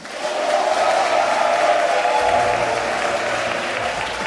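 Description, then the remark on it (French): A large live audience at the Université Félix de Boigny in Cocody, Abidjan, applauds steadily, a dense sustained wash of clapping with a few faint cheers mixed in, loud, lasting the full few seconds without any speech. “Bonjour et bienvenue dans le débat africain qui est cette semaine en direct, en public, à l'université Félix de Boigny de Cocody à Abidjan, comme vous pouvez l'entendre.”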